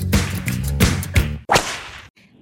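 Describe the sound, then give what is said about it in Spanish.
Four sharp whip cracks snap out at uneven intervals over a steady sustained tone, each crack loud, the last one followed by a quick fade to near silence. “¡Sas, culebra al piso! ¡Tras, tras, tras!”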